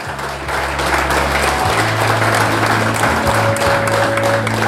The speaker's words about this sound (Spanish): Un aplauso caluroso para todas las mujeres en este auditorio.